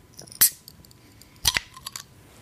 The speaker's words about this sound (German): Moment, ich werde jetzt live ein Bier öffnen. Geil, das hört sich jetzt schon geil an. Achtung, es geht los.